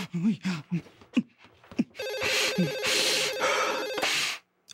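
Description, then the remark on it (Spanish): A telephone bell rings loudly and continuously for a couple of seconds with a bright metallic trill, following a few brief spoken words at the start. “el teléfono!”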